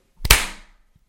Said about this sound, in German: okay, wir klatschen auf. Eins, zwei, drei.